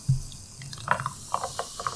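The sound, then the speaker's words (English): A canned drink is poured into a glass, filling it about halfway, with a soft liquid rush and a series of light, bubbly glugs and pops rising through the pour. No one speaks. “So and for the purposes of bubbles, maybe we go with a little bit less than the whole can.”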